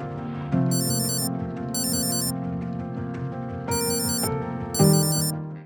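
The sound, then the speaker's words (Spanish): An alarm clock rings with a loud electronic melody, bright trilling bursts recurring four times over a steady tonal pattern, with no one speaking. “Suena el ring de la alarma despertador.”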